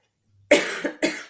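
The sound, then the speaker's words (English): A few harsh coughs from a person with a cold, in quick succession: one strong burst followed by two more, each sharp at the onset and trailing off raspily. “as I'm coughing, I'm saying yeah.”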